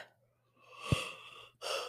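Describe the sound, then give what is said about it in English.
A drawn-out breathy yawn swells for about a second with a small catch in the middle, then a shorter airy exhale follows. No talking. “Besides that, sorry guys, I had to yawn. It just hit me.”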